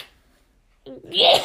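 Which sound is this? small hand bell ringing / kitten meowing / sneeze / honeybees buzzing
sneeze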